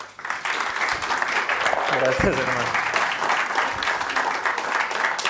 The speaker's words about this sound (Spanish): ahí te voy a pedir que me ayudes a recibirlo con un aplauso.